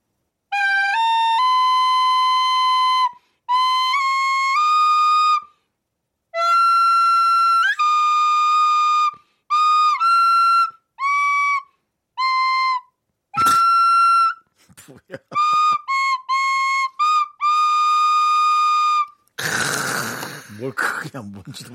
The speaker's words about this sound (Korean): 자, 이제 남창희 씨가 피리 연주할 겁니다. 잘 듣고 공명을 보내주시면 됩니다.